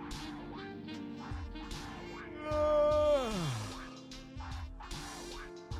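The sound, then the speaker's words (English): A person performs a fake yawn: a drawn-out, voiced groan that swells louder, holds its pitch, then slides downward, surrounded by softer breathy sounds. “You're an asshole because I just did a fake yawn.”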